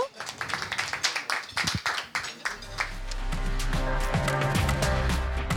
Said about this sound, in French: Allez, on peut s'applaudir, bravo.